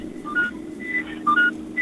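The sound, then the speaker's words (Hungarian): A car's seatbelt warning chimes repeatedly in the background of a phone call, short two-note electronic beeps at a mid-high pitch recurring about every half second over a steady low engine hum. “Mi ez, ami sipolott a háttérben”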